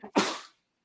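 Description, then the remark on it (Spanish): A single sneeze: a short sharp intake followed by an explosive, breathy burst that fades within half a second, then silence. “Salud.”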